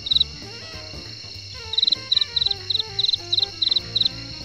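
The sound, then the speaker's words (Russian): Crickets chirp in short, high trilling bursts that repeat at a steady rhythm after an opening chirp and a brief pause, set against a soft, murmuring musical background. “Да господи, кто опять притащил этих сверчков?”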